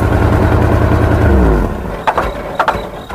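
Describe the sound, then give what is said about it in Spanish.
In an advert for Cool engine lubricants, a loud engine hums steadily, then its pitch drops as it winds down and cuts out, followed by a few sharp metallic knocks and clanks. “Porque cada motor es diferente.”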